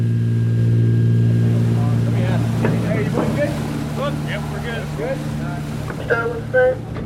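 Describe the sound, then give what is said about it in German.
Loaded landing boats carrying US Marines motor away, their engines droning loudly and steadily throughout, a low, harmonic motor rumble with wind noise, while people talk over the top of it. “verfolgt die Boote auf dem Radar.”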